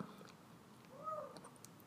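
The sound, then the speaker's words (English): A pet cat, Odie, singing in another room, gives a short, faint chirping meow, with quiet high chirps and small vocal sounds scattered around it and no one speaking. “so you might hear some little some little chirps and talks in the background.”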